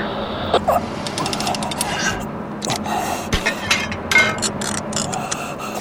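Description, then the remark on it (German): Metallic clanks and scraping as a part is coupled onto a buggy's hitch during a storm, a few sharp knocks spaced irregularly over a steady roar of strong wind. “wir kuppeln das Teil jetzt an den Buggy an und hoffen, dass wir gegen den Sturm ankommen.”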